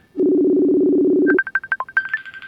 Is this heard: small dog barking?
no